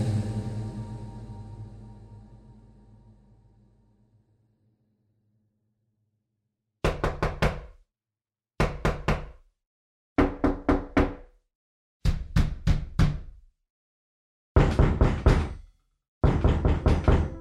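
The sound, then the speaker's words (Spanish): A low, fading drone gives way to silence, then loud knocking on a door comes in six separate bursts of four or five quick raps each, with short pauses between. “Los golpes a la puerta te despiertan del sueño.”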